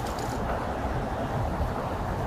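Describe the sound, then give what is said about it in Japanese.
A steady, low rumbling wash of road traffic from a nearby main road, constant in level and filling the background with no distinct passing vehicles or voices. “ちょっと幹線道路みたいなところで、ちょっと若干車の音いろいろ入ると思いますが、ご容赦。”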